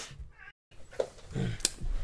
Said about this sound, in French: je crois que vous avez entendu mon chat. Ou alors tu fais vachement bien le chat. Ou alors j'imite super bien le chat. c'est parce qu'en fait il est enfermé dans le studio et il faut que j'aille lui ouvrir.